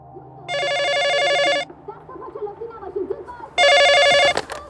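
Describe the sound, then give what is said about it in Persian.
A telephone rings twice in a family home, with the call coming from the Shariati prosecutor's office. Each ring is a bright, harmonically rich electronic trill lasting about a second, separated by a pause filled with faint background murmur and movement. “الو منزل سینا سلطانی بفرمایید خانم من از دادسرای شریعتی تماس میگیرم”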